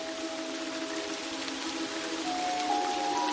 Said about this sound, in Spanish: De noche, llueve en un prado que ocupa una vaguada con suaves colinas a los lados y bordeado por árboles y montes al fondo.